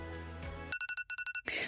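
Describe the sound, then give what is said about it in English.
A phone alarm ringtone goes off as a reminder to take a pill: bright, high-pitched electronic beeps pulse quickly in two bursts of four. They are fairly loud and cut in right after a stretch of music. “That's my alarm to take my pill, which I've done.”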